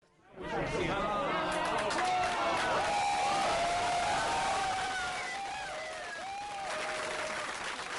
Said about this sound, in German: Der Kontrollraum des LHCs bricht am 30. März 2010 um 12.59 Uhr in Jubel aus. Die ersten Daten von Teilchenkollisionen mit einer Rekordschwerpunktsenergie von 7 Teraelektronenvolt leuchten auf den Bildschirmen auf.